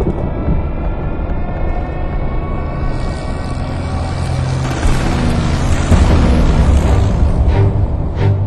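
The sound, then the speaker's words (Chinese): A dense, unbroken battle din during the siege of the British Eighth Army at Tobruk: droning aircraft bombing and heavy engines with rumbling bombing and artillery booms, one sharper blast swelling late, the low grinding roar of tank tracks underneath, and no voices. “布朗完全被震天动地的飞机轰炸声、大炮的轰鸣声和坦克履带的碾地声吓懵了，他染上了战争恐惧症。”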